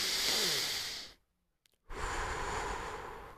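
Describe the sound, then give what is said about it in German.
A deep breath drawn in with a long, airy rush, a short silent pause, then a slow, full exhale, both broad and breathy with no talking. “Und genau das ist nämlich, wenn du dich auf deinen Atem besinnst, wenn du einmal wieder dieses”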